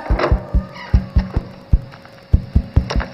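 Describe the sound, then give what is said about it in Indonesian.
A long run of sharp knocks on a door tapped out in a rhythmic scout clap pattern (tepok pramuka), about a dozen crisp hits grouped with brief pauses, with no voices over them. “Kalau ketoknya panjang”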